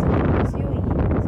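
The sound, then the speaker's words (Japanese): Strong outdoor wind buffets the microphone in a steady, loud, low rumbling roar that fills the whole moment without pause, recorded at 12:39 on a Tuesday in 2023 while on the way to a shop in Yokodai. “えー、今ですね陽光台のお店に向かっている途中でちょっと風がね強い”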